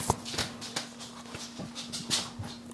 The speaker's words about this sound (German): Boah, ab ins Bett, Hund. Ab ins Bett. Das hat man schön gehört, glaube ich.